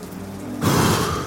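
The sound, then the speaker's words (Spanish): A low steady hum gives way halfway through to a dense, even patter of cold, icy drizzling rain that fills the rest of the short recording, continuous, with no voices. “Tan pronto nos bajamos de su minivan, comenzó a caer una llovizna helada.”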